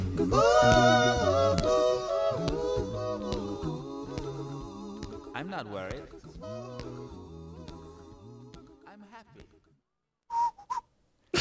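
A cheerful whistled melody rides over layered a cappella vocal harmonies, the song fading out gradually before a brief voice cuts in at the very end.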